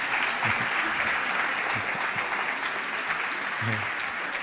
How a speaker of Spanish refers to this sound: Ustedes no me aplauden porque les gustó, me aplauden porque están contentos, porque van a comer temprano.